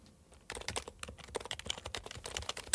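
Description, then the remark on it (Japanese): Fast typing on a Happy Hacking Keyboard, a mechanical-style keyboard: a dense run of crisp, clacky keystrokes with no voices, starting after a brief quiet moment and continuing steadily to the end. “このキーボードは一生ものハッピーハッキングキーボード”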